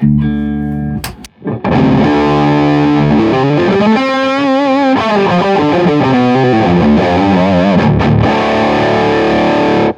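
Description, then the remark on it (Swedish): A loud, overdriven electric guitar with a gritty, growling tube-amp tone plays sustained chords and bends, briefly cutting out near the start before ringing on continuously, with no talking. “Den här har ju lite så här busig textur i sin överstyrning.”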